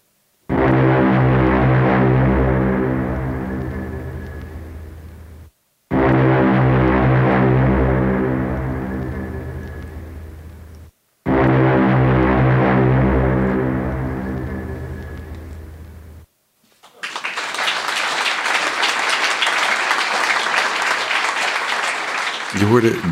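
A mournful foghorn sound effect for a reading of Ray Bradbury's story 'The Fog Horn' sounds three times. Each long, low, droning blast fades slowly before a short pause, followed by a steady rushing noise like wind or surf.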